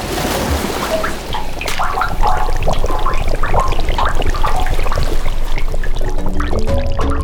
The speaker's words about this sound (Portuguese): A maré se agita.